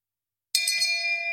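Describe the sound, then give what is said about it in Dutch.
A single bright bell strike from a soundboard button, pressed by mistake, rings out after a brief silence, its clear metallic tones sustaining and slowly fading. Fairly loud, with no talking. “En groen is dus post en niet geel. geel was feminist bel.”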